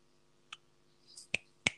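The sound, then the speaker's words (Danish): Three sharp, clear finger snaps ring out, the first lighter and the last two louder and nearly back to back, with a faint brush of noise just before the second. “Der knipses. Der knipses. Der bliver knipset.”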